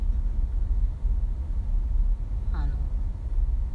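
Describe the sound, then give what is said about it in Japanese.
A steady low rumble of a car in motion, heard from inside the cabin on the drive home from work, droning evenly throughout with a brief faint vocal-like chirp near the end. “駅まで車で送っていってそのまま出勤して今帰りです”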